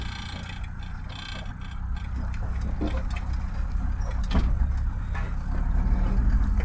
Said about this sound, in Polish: auto wydaje w czasie jazdy dziwne dźwięki, tak? E, stuki, hałasy. No, trzeba się przyzwyczaić